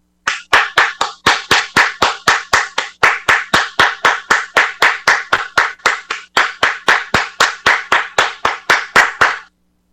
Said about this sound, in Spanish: ¡Aplausos, por favor!